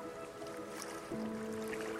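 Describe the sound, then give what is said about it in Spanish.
A boat moving over open water in the middle of the sea, with a steady wash of waves and a low droning hum that shifts pitch slightly partway through, continuous, with no voices. “Un barco que se mueve al ritmo de las olas en medio del mar, donde lo único que se ve es agua y agua”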